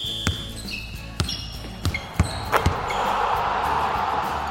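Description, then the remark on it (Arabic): During a basketball game, a basketball bounces on a hard court several times at an irregular pace, each thud sharp, with squeaks and a rising hum of crowd noise. “مباراة كرة سلة”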